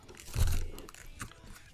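A single soft, muffled bite into a whole Chicago-style hot dog, taken in one bite, lands with a low thump, followed by wet chewing and faint crunching that fades into quieter mouth noises over the next second.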